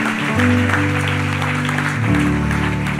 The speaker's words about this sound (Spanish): Quiero darle un aplauso a estos valientes que pasaron y decirles bienvenidos a la familia de Dios.